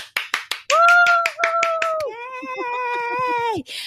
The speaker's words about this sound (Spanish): Fuertes aplausos.